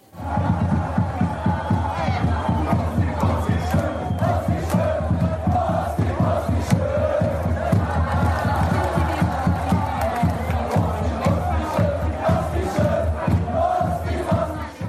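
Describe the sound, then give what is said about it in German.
A large crowd of fans chants, in unison, a song they dedicated to one person, steady rhythmic singing with a strong beat that carries on loudly and continuously, the sound of a packed stadium or arena. “Äh, sie haben dir ja, das haben wir auch gehört, vor dir ja schon ein eigenes Lied gewidmet und das tönt so.”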